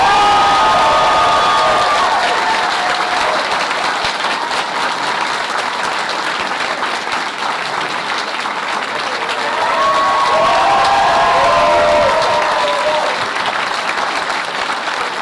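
An audience at Pensacon bursts into sustained applause welcoming voice actor Jim Cummings, dense steady clapping filling the whole stretch, with scattered cheers and whoops rising over it, loudest near the start and again toward the end.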